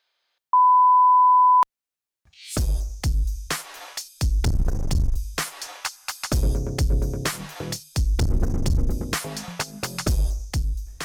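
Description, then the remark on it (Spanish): A single steady, pure electronic beep from an answering machine asking the caller to hold, about a second long, sounds alone before a pause. Then a loud, dense stretch of sound takes over. “Este es el contestador de Descolgados. Por favor, manténgase a la espera”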